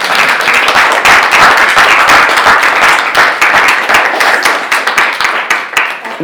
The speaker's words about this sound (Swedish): vi börjar väl med att tacka för föredraget med en stor applåd såklart.